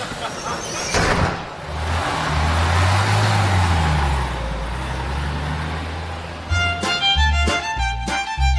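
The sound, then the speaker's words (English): A bus's engine rumbles steadily as it drives along, low and continuous, with a brief burst of noise near the start and some clattering tones toward the end. “And look, she's brought her bus with her.”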